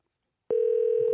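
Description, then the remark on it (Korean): A steady telephone dial tone switches on abruptly after a half-second of silence as a radio host places a call to a listener, holding at an even, fairly loud level, with no voices present. “자 전화 한번 걸어보겠습니다”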